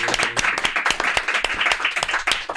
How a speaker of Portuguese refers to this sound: Palmas para essa mulher, senhoras e senhores!